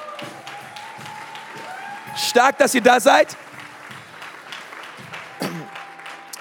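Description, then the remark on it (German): A church audience claps steadily to welcome a guest preacher and his wife, a dense crackling wash of many hands that runs through the whole clip while a man speaks briefly over it. “Komm, lass uns dem mal einen Applaus geben.”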